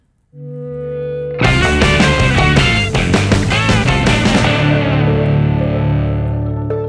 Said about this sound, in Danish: Jeg vil lige starte ud med at sige, at vi får mega mange klager over vores jingle. Ja. Øh, den er for høj, folk kan ikke lide den, og jeg ved, vi har sagt det tidligere, men vi har altså en ny jingle på vej.